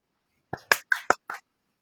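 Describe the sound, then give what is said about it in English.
A brief run of about five hand claps given as a welcome to a new colleague, sharp and fairly loud, in a slightly uneven rhythm, with quiet before and after and no talking. “Thanks for your clap.”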